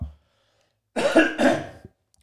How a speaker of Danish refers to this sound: Du har nærmest, undskyld, jeg hoster.